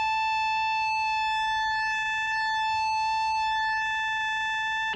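A steady synthesizer pulse wave, its uneven on-off cycle giving a bright, buzzy, reedy timbre, holding one high pitch at constant loudness for five seconds with no talking.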